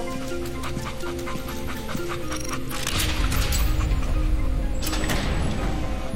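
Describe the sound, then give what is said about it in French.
Sled dogs pulling a sled pant quickly and steadily, fairly loud, with several animals breathing at once; a heavier low rumble joins partway through, like movement over snow, in very cold, sunny weather. “Rémi Marion est de retour avec ses chiens et son traîneau.”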